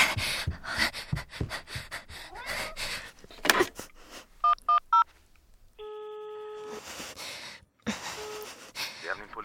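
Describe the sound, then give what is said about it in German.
Three quick touch-tone key beeps of dialing the police emergency number on a phone, followed by a steady electronic tone and a brief gap, with hurried breathing and panting around them. “Polizei Notruf gewählt.”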